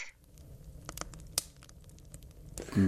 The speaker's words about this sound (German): Wenn ihr wollt, ich könnte euch trotzdem ein bisschen Feuer in die Bude zaubern. Und wie? Ganz einfach, mit meiner großartigen Geräuschedatenbank. Wie wär's hiermit?